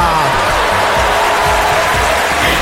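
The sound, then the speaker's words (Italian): An audience breaks into loud applause, a dense, steady wash of clapping with a few cheers and whoops mixed in, holding constant for a couple of seconds. “un bel applauso”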